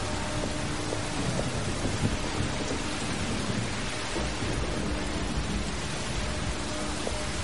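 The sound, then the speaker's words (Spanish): Heavy rain pours steadily onto a dimly lit street as a woman walks through it, a dense, unbroken hiss with soft patter that holds at the same level throughout, with no voices. “Camina bajo la lluvia por una calle débilmente iluminada.”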